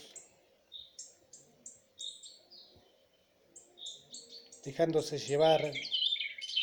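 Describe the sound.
Bright, high birdsong chirps repeat steadily throughout as the background to a guided meditation, moderately loud, with a calm voice briefly speaking over them near the end.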